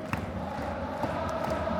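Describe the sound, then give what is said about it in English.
A large stadium crowd of Marinos football supporters in Japan chants together at a Saturday-night derby after the rain has stopped, a steady, dense roar with a sustained sung tone carrying through the continuous noise for the whole short stretch. “Enjoy the sounds of the Marinos on a Saturday night.”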